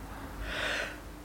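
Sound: sneeze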